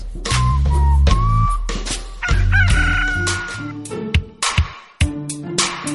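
A rooster crows loudly, its drawn-out cock-a-doodle-doo rising and falling, with a few sharp knocks and clucking-like bursts near the end.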